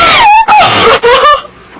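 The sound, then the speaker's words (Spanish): A woman screams loudly in three shrill, sustained bursts separated by quick breaths, then her cry trails off into quieter sound. “No grites”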